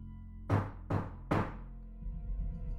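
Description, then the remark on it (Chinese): Three solid knocks on a door, evenly spaced and thudding with a low, hollow body, followed by a faint rumbling murmur in the background. “我隐约听到有人敲门，”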